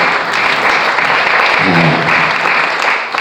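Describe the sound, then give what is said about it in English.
A crowd gives a hand clap of praise to God in a dense, continuous burst of applause, loud and steady throughout, with a brief low voice or tone surfacing faintly beneath the clapping midway. “Let's give a hand clap”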